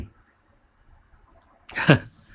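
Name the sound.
hiccup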